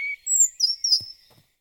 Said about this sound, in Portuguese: E todo dia, durante o café da manhã, minha mãe disse: Que lindo! Adoro o canto do sabiá.